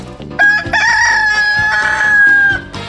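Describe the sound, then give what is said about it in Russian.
A rooster crowing sound effect, loud, a single long, strained cock-a-doodle-doo that rises and holds before trailing off, with a rhythmic musical backing underneath, accompanying the fable "The Rooster and the Fox". “Похвастался петух однажды, что женится он на лисе”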